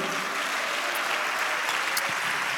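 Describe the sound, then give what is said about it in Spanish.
A crowd claps steadily for Christ, a dense wash of many hands applauding together, sustained and fairly loud without pause. “Dale un aplauso a Cristo, a su nombre, gloria.”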